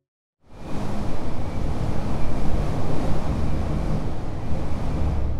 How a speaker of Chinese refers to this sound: 这个就是 Roy 小狮子在沙漠听到的呼呼啸的风声呢。The sound of the wind。